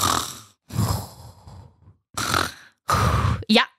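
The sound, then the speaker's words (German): A person imitates with their voice a man snoring in bed, making four loud rasping snore sounds separated by brief pauses, the last one short and rising. “er schnarcht.”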